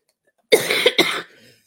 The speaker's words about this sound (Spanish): entonces espérenme porque voy a toser.